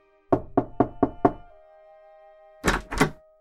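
Five quick, evenly spaced knocks on a low black wooden door, fairly loud, followed after a short pause by two heavier, sharper thuds.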